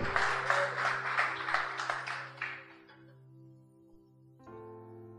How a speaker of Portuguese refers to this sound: Pode aplaudir mesmo a ele.